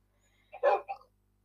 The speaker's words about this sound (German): Hör auf zu bellen.